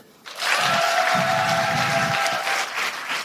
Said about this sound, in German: Wer kennt alles Busenfreunde, den Podcast? Einmal klatschen bitte.